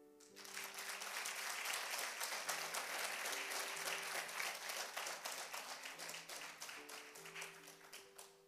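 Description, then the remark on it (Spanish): A crowd breaks into sustained applause for the Lord, a dense wash of many hands clapping at full volume for several seconds, with steady organ-like sustained tones holding underneath. “Quiero que le des un aplauso al Señor.”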